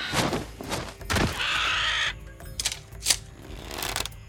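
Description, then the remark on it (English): A massive vulture with gold and blue feathers screeches loudly as it lands in the path of a carriage, giving several harsh, rasping cries and one drawn-out shriek, with bursts of flapping noise and no voices. “It was a massive vulture.”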